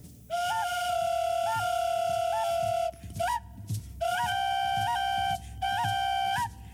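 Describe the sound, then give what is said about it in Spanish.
A clay ocarina, a flute with four tones on each side, plays a breathy, flute-like melody: long held notes with quick upward flicks, a brief pause, then a second similar phrase. No one speaks. “Traen unas ocarinas, es una flauta que tiene tres, cuatro, cuatro tonos de cada, de cada lado.”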